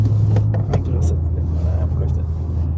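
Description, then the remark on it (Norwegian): A 550-horsepower sports car's inline six-cylinder engine rumbles steadily, a deep, loud low-end drone with a few brief clicks and knocks over it; the car has exposed carbon bodywork, a carbon roof and wide gold wheels. “Rekkesekser og 550 hestekrefter – tidenes nerdebil?”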